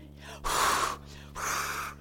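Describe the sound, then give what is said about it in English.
Two long, steady puffs of breath blown out in succession, as a person imitates blowing on a dying fire to revive it. “You're breathing on it. Why? To get the oxygen into it, to get it activated.”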